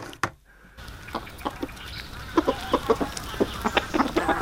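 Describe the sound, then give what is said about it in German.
Chickens cluck in a steady series of short, clipped calls, growing a bit busier toward the end, with no one speaking. “Ja, warum habe ich dir Hühnergackern in die Box gelegt?”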